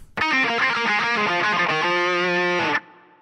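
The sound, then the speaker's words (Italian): A distorted electric guitar, the second guitar checked during a band's soundcheck, plays a short loud burst of rapid notes and chords for under three seconds before cutting off abruptly into a faint ringing tail. “Chitarra 2?”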